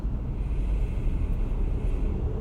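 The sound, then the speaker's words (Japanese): Steady low rumble of idling and slowly moving cars in a heavy traffic jam, a dense, continuous roadway drone with no speech and no distinct horns or passing swells. “はい私今自宅から出てきましたけどすごい渋滞してます”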